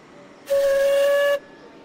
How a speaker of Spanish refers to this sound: Suena otro silbato, ya son tres. El tren empieza a moverse.